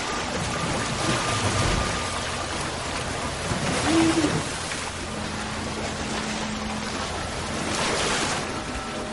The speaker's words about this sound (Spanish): La sala de máquinas se inunda.